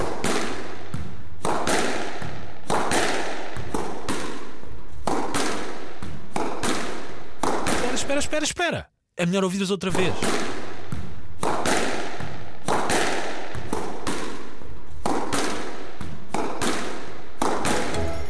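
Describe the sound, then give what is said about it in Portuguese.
A squash ball smacks repeatedly off racket and wall, loud sharp thwacks in a quick, fairly steady rhythm, broken midway by a short pause where someone speaks briefly. “É alguém a jogar squash.”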